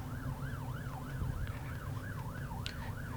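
Police patrol car sirens yelp in fast, steady up-and-down cycles over a heavy rumble of road traffic as multiple patrol cars come along, holding fairly constant loudness throughout, with no one talking.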